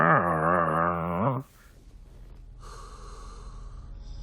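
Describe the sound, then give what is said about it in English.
A voice imitates a dog's wary growl, a loud, wavering, throaty rumble held for just over a second, which cuts off abruptly into quiet background noise. “Like I think her own dog was like”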